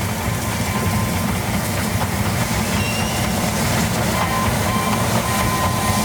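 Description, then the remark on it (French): A steam locomotive rumbles steadily as it pulls into a station, its heavy low-pitched roar and rattling carriages filling the scene at a constant loud level. “Soudainement, le bruit d'une locomotive emplit alors la scène. Les trois acolytes se dirigent vers le train qui entre en gare.”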